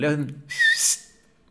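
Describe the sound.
A brief vocal sound leads into a short, sharp whistle, a single piercing note with a slight bend, imitated by a voice, fairly loud before trailing off into quiet.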